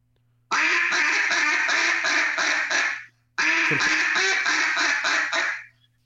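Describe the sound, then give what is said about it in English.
A duck call deliberately blown the wrong way, imitating an inexperienced caller, in two long, loud runs of rapid, blaring quacks that run together with an uneven, unnatural cadence, separated by a brief pause, with no talking. “And that is that that the wrong one is just me trying to mimic somebody who hasn't been doing this for a long time or, or, or needs to improve on this.”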